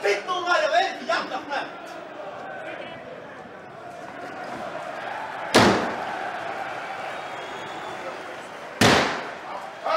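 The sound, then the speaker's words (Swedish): Two heavy kicks bang against a door that would not close, a few seconds apart, each a loud, sharp slam over a low background hum, with indistinct voices murmuring near the start. “spark, dörren och, och sen, som inte gick att stänga och sen en spark till”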